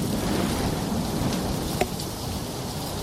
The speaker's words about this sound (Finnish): Vähän kovempi tuuli. Huomaat, että luonto on vihane. Luonto on vihane, kyllä. Siinä. Nature is speaking. kyllä. Niin, tuota, Mikrofonitkin tuo... lentää kohta.